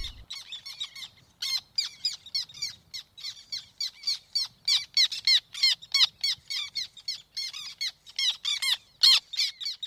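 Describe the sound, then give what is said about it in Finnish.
A lone black tern flying over Siikalahti among common terns gives a nasal, cackling call in rapid, repeated bursts, steady throughout, with a few other terns chattering along with it and no voices. “Viikon luontoäänen, mustatiiran”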